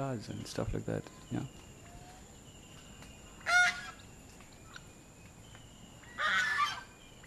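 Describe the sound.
Farmyard birds squawk and cackle in bursts, with a couple of loud, harsh calls standing out close by against a steady background hum; a brief voice is heard near the start.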